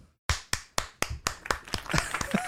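Applause that opens as crisp, evenly spaced claps, about four per second, then grows denser and more overlapping, with a brief whistle-like tone rising near the end. No one speaks.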